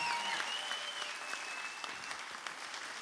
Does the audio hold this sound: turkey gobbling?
no